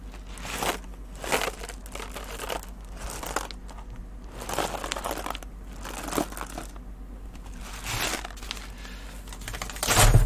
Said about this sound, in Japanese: これは今ね、タリーズで買ってきたコーヒー豆。タリーズで買ってきたコーヒー豆の音です。